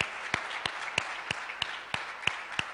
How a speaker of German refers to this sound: Können wir Gott dafür einen Applaus geben? Das ist nämlich Gott, der das tut.